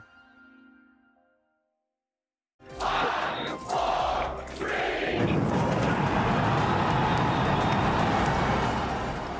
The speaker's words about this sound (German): Der Jubel, der war riesig, als die größte jemals gebaute Rakete gestern abgehoben ist, noch unbemannt, und wenige Minuten später ist sie dann in Flammen aufgegangen.